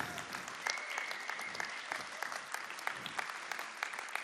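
Sustained, warm, thunderous applause from a large crowd welcoming a preacher, a dense, steady wash of many hands clapping together for several seconds with no voices over it.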